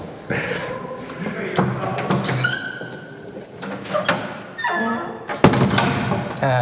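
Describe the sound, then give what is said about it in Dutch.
A door in a castle swings shut with a creaky squeal and lands in a solid thud near the end, amid a busy background of shuffling and voices. “En doe even lekker de deur dicht.”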